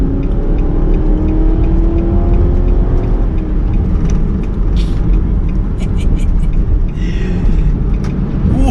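A 315-horsepower car with a modified exhaust revs with a deep, loud, continuous rumble. Its droning pitch climbs and then falls back as the revs change over nearly nine seconds.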